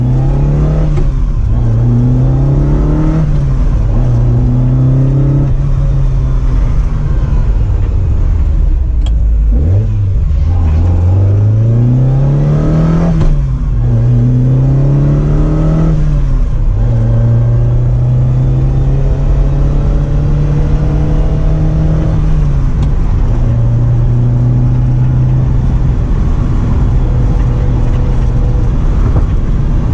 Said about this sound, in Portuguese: que vocês estão ouvindo parece muito de um 4 cilindros, mas é de um V8 de 3 litros. E o designer desse carro é o cara que criou Lamborghini Miura e o Contatti. Está falando de um projeto do Marcelo Gandini para a Bertone. E o carro é a Ferrari 308 GT